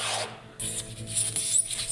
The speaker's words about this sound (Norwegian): Isopor mot vindu, bestikk mot tallerken. Herregud!